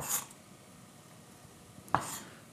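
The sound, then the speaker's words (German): Two crisp knife chops on a cutting board as an onion is diced crosswise into small cubes, nearly two seconds apart, with a quiet background in between. “Und dann wieder quer runter. Das können kleine Würfelchen sein.”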